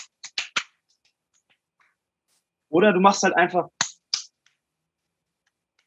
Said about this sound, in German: Okay, äh, dann klatsche ich auf, obwohl, okay, ich klatsche das mal auf den Tisch. Also, natürlich kannst du ein Pattern machen, das.